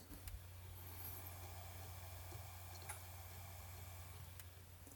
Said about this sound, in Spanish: Mira, es más, me voy a acercar ahora que estoy grabando en el salón, antes de que se levanten los niños. Uy, perdonar el ruido. Y voy a meter el móvil justo al lado de, del NAS, a ver si se escucha.